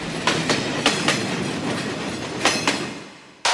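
A train rumbles along steadily with a rushing roar, its wheels striking rail joints in paired clickety-clack beats that repeat at intervals, fairly loud, before the noise cuts off abruptly.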